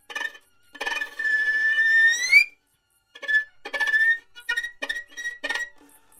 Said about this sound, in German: Also aus dem ersten einzelnen Grillenzirpen, das so klingt, wird dann plötzlich ein langer Ton.